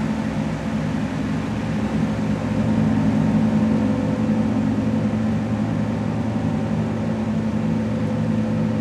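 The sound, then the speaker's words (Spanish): A gong rings in a long, sustained wash, its deep layered resonance droning steadily at an even, fairly loud level throughout, with no voices. “Y permite que el sonido del gong llegue como una bola creativa”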